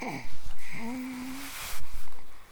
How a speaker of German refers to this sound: Hört ihr, wie sie atmet?